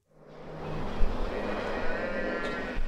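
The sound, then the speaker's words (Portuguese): More than 300 cows low in a large, busy dairy barn covered with solar panels, with about 20 milking stations, in an Israeli settlement in the West Bank; overlapping moos rise over a constant wash of background noise and a few clanks, steady. “Uma estrutura coberta de painéis solares abriga mais de 300 vacas.”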